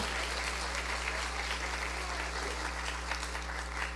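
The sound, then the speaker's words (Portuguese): An audience applauding God steadily during a church sermon, a dense wash of overlapping claps that holds at a fairly even level for the whole stretch, with a low steady hum underneath and no one speaking. “Glória a Deus. Pode aplaudi-lo.”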